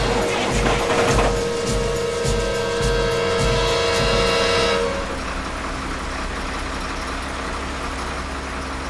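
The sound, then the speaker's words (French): A heavy truck packed full of sacks chugs and sputters unevenly, unable to accelerate, with a harsh, loud rumble and a tonal horn-like whine for the first few seconds, then settles into a steady low idle. “Bourré à craquer, le moteur fait de petits coffres-coffres. Impossible de mettre les gaz.”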